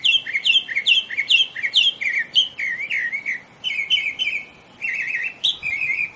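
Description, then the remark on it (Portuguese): A Lawrence's thrush sings a rapid, continuous run of varied chirps and whistled notes, switching phrase types as it mimics other bird species, clear with no talking. “Esse é o caso, acho que o caso mais é, emblemático dessa habilidade é do sabiá poliglota.”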